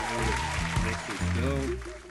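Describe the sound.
Steady applause welcoming a guest fills about two seconds, a dense even hiss of clapping, with voices calling out or cheering over it the whole time.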